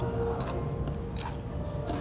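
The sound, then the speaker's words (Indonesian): Three crisp, crackly crunches spaced through a steady low background hum, like a crunchy snack being bitten and chewed, with no voices. “renyah banget kan”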